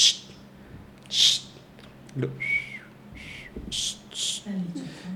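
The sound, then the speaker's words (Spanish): Someone imitates a barn owl's call with a string of breathy, hissing screeches and short whistled notes, about half a dozen bursts spaced unevenly over a few seconds, like an owl heard from the top of a tree. “Y yo estoy seguro que fue una lechuza.”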